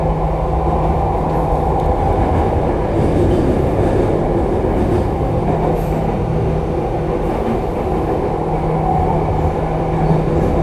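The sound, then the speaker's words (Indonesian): A subway train bound for Lebak Bulus Square station riding along, its loud, steady low rumble and rattling roar running unbroken for the whole stretch, with a faint constant electric hum underneath and no one speaking. “Kereta ini menuju stasiun terakhir, Lebak Bulus Square.”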